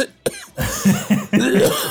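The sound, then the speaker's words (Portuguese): A short sharp burst followed by a run of raspy, guttural throat clearing, several rough voiced pulses in quick succession, fairly loud with no talking. “Grupo do Pigarro, participe já.”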